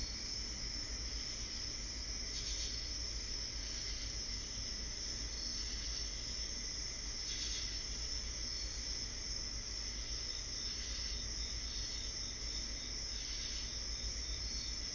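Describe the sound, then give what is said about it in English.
A steady, dense chorus of crickets and cicadas chirping without pause, high and shimmering, with faint pulses rising now and then over a low background hum; no voices. “You do not see another human, but the cicadas and crickets keep you company as they sing to you.”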